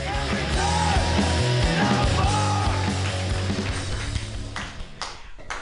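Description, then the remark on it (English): A comedy show crowd in San Francisco applauds loudly as a comedian is introduced, a steady wash of clapping with high whoops and cheers rising over it, then the noise thins out near the end into a few scattered claps. “Clap your hands wildly.”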